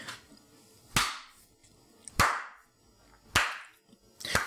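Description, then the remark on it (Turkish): Four slow, deliberate hand claps spaced about a second apart, each a sharp, loud smack with a brief ringing tail, and quiet between them. No one speaks. “Alkışlar mısın?”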